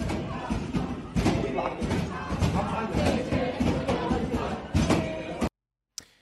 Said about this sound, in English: So that's that's uh, one of the videos where you can see you can hear them banging on the door.